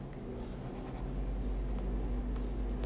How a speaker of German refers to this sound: Also schreibe ich mir auch gleich mal auf, nicht, dass ich das so spontan vergesse.